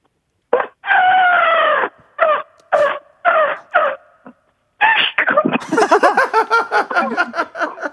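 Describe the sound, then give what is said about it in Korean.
A phone-in caller imitates an elephant passing by with a long, loud trumpeting cry and several short blasts, then breaks into a rapid run of high, squeaky chirps like a bird being stepped on by the elephant. “코끼리가 지나가면서 소리를 내다가 새를 밟고 지나가서 새가 찍 하는 소리까지 가능합니까?”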